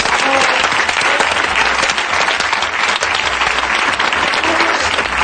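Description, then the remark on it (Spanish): Steady, loud applause from an audience, a dense wash of clapping hands that holds evenly for about five seconds, with faint murmurs of voices mixed in. “Venga, un aplauso porque entre todos.”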